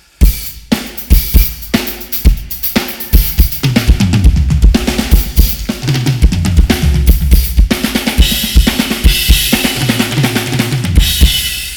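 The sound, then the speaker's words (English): A drum kit played in a steady groove, with punchy low kicks, crisp snare hits and bright cymbal wash filling the top end, loud with no voices. “Those drums were made more to kind of sound something like this.”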